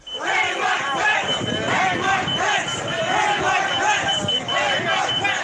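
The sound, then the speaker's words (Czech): A large, agitated crowd at the January 6 attack chants and shouts slogans such as "Where is Pence" and "Hang Mike Pence" together in loud, rhythmic bursts, many voices overlapping in a dense roar that stays steady throughout. “Eh, mimochodem Trumpovo kritické tweetování na adresu Pence dokonce přimělo rozvášněný dav toho 6. ledna k bojovému vyvolávání hesel jako kde je Pence nebo pověste Mikea Pence.”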